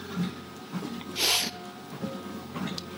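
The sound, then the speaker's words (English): A sharp, breathy sniff through the nose stands out near the middle, fairly loud, with a fainter sniffle near the end over a quiet background. “Oh, pardon my sniffles. They must sound awful if you're listening on headphones.”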